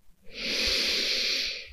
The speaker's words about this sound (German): Atme tief ein.